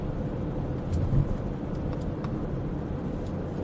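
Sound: car interior road noise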